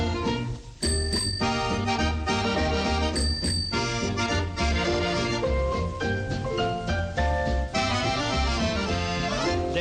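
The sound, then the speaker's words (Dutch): A bicycle bell rings in quick double rings, clear and bright over a full, steady musical accompaniment, with another pair of rings a couple of seconds later. “Als ik tweemaal met mijn fiets bel bel, dan betekent dat kom snel.”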